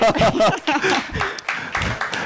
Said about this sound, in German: Mega gut. Ich finde, das hat einen Applaus verdient. Bravo!